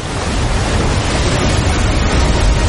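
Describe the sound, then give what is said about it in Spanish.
Loud, steady roar of rushing floodwater, a dense churning wash of water that stays constant throughout, with no voices. “El agua les alcanza, ellos se aferran a la cuerda.”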